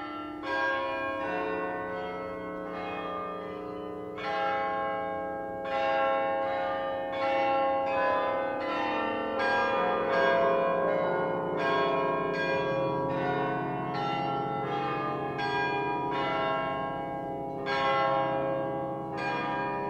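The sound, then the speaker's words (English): Church bells peal continuously in overlapping strikes, their tones blurring into a dense, reverberant wash as echoes bounce back from surrounding surfaces. No voices, just the ringing filling the space. “The bells are just, there must be 500 flat surfaces around with these weird reflections of these church bells.”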